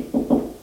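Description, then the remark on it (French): Two quick, dull knocks by a police officer on a door, low and hollow in tone, spaced about a fifth of a second apart with no voices around them. “frappe à une porte et entre.”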